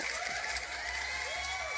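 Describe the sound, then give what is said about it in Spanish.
A burst of an applause sound effect, dense, continuous clapping at a steady level throughout, with faint tonal cheering or whistles mixed into the wash of hand claps. “Pero un aplauso para Banano, por favor. Un aplauso.”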